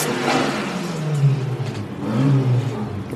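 A car engine revs hard, its low droning pitch climbing and falling in two surges over a few seconds, loud with no voices.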